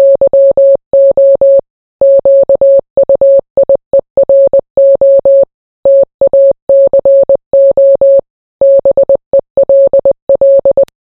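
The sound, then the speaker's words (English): A steady stream of Morse code beeps in a single pure tone, short dots and longer dashes grouped with brief pauses, signalling SOS and then the message "Yo Kyoto Taco Bell", loud with no talking. “In Morse code, this is how you signal SOS.”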